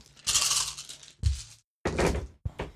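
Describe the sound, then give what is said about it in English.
Dice rattle and clatter in a few bursts as an attack roll for a gambit: a sharp thunk followed by scraping, tumbling noise, then a pause and another quick rattling roll. No one speaks. “Go ahead and give an attack roll to see if you hit for this gambit.”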